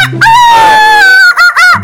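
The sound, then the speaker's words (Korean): A chicken lets out a loud, drawn-out squawk, then a couple of quick, sharp clucks, with no voices around. “이것이 말이요. 닭헌티도 적용이 된다.”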